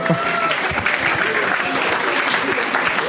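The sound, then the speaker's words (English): An audience claps steadily throughout, a dense, continuous patter of many hands at a fairly loud, even level with no pauses. “Keep clapping.”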